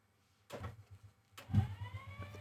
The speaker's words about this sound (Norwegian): Vi har hev-senk her. Det er ikke så sexy lyd,